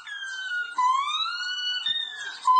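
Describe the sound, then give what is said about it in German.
A monkey at the Kyiv zoo imitates an air raid siren with a loud, wavering wail whose pitch rises and slides across several sustained cries, with no talking. “There was a monkey, and it imitated the sound of alarm.”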